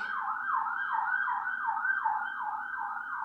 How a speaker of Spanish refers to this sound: no sé si se escuchó como la ambulancia sonando